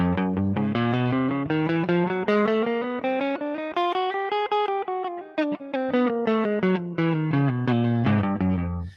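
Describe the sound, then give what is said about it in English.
Distorted electric guitar plays a chromatic finger warm-up exercise, with a steady stream of quick single notes climbing step by step in pitch and then winding back down, loud and without talk. “Um but they're it's, they're just like basic exercises, just like real Let's hear them. Like chromatic stuff just like like”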